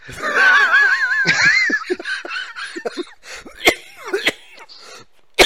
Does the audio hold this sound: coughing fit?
yes